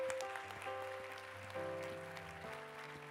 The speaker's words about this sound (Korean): 우리 비전 월십 때마다 귀한 찬양으로 섬겨주신 우리 찬양 우리 귀한 형제 자매들 우리 아이들 한 번 큰 박수로 격려해 주시기 바랍니다.